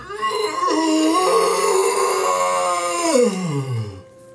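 A long, loud yawn close to the listener, a strained voiced stretch that swells and holds for several seconds before sliding down in pitch and trailing off.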